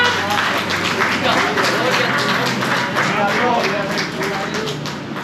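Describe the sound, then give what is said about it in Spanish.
An audience at a Spanish-language church service one morning breaks into loud, steady applause for God, dense clapping holding at an even level for several seconds, with a murmur of voices and cheers mixed underneath. “Vamos a dar un fuerte aplauso a nuestro Dios esta mañana.”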